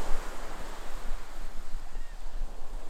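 pacific Ocean waves

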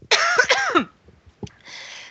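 cough

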